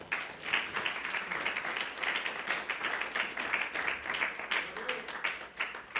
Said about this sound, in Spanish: Dale un aplauso al Rey.